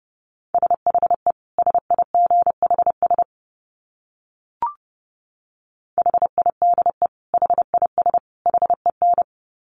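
Morse code sent at a fast 30 words per minute: a single mid-pitched tone keyed in quick dits and dahs, two bursts of characters separated by a silent pause broken by one brief click.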